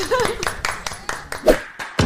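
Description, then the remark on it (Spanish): Short burst of applause: a steady, rhythmic run of sharp claps, about nine in two seconds, with voices talking faintly underneath at the start. “Un aplauso.”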